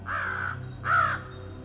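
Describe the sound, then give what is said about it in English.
A crow caws twice, harsh, each call lasting about half a second with a brief pause between, over a faint steady low hum. “a thirsty crow found a pitcher or a jug with a little water in it.”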